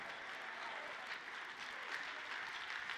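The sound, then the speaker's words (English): A church audience claps their hands together to thank God, a dense, steady wash of applause that holds at an even level for the whole stretch, with no voices standing out. “Come on, let's clap our hands and thank Him that there is no changing in Him, there's no wavering in Him.”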